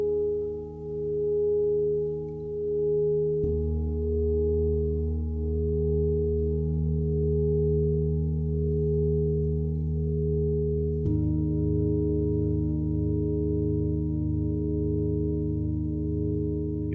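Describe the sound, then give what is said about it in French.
A singing bowl hums with a steady, layered resonant tone that sustains throughout, shifting slightly in pitch and texture at a couple of points as it's struck or rubbed again, with no voices. “Et au bout du 21e jour, c'est des sons, euh, des chants, des, le bol tibétain, le bol de cristal, ou des sons simplement, des chants de, de, joie.”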